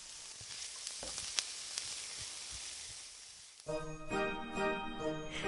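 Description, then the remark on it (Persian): Fava beans sizzle as they are sautéed for a minute or two in a hot pan on a gas stove, with a steady hiss and scattered sharp crackles for a few seconds, then a louder sustained tonal sound abruptly takes over. “باقالا رو اضافه میکنیم برای اینکه باقالامون وانره ما در حد یکی دو دقیقه تفتش میدیم فقط حواستون باشه که زود میسوزه ها بالای سر گازتون وایسین مراقب باشین بعد این یکی دو دقیقه دو تا لیوان آب جوش بهش اضافه میکنم”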